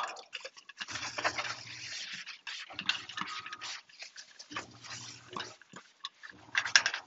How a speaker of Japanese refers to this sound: え鍋の蓋を洗っています。コヘル。